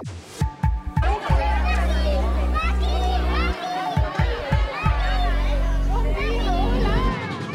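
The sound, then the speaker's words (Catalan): A lively crowd of young children chattering, shouting and playing at school in Andorra on 9 September, the first day back to class, their overlapping high voices filling the space, with a few heavy low thumps near the start and midway. “Aquest és el soroll d'aquest 9 de setembre.”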